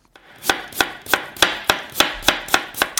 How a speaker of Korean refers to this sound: 아, 이거 예, 주부님들 익숙한 소리죠. 도마 소리입니다. 도마 위에서 지금 뭔가 칼로 뭔가 썰고 있는 소리예요.